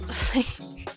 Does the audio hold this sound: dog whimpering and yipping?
yes